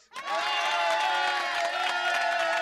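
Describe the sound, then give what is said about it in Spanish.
A large crowd cheers loudly and continuously for the goalkeepers of Mazatlán and Tigres, a dense roar of many voices that swells in right away and holds steady for a couple of seconds, with sustained tonal shouts riding on top. “Así que una porra para los porteros, tanto del Mazatlán como de Tigres.”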